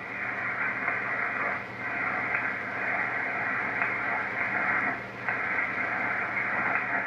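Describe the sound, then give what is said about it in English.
Steady, loud hiss of static from an HF radio receiver as the transmit and receive capacitors on the antenna tuner are turned for maximum noise, a muffled rushing noise that briefly dips twice as the tuning shifts. No one speaks. “the two capacitors that we were talking about, the transmit and receive capacitors on the tuner, I'm going to turn them and tune them simply for maximum noise.”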